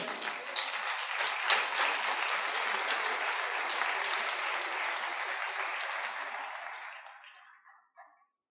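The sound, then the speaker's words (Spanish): Sustained audience applause, loud and dense, clapping steadily for about seven seconds before tapering off into a few last scattered claps. “Dije, porque a mí no me aplauden así.”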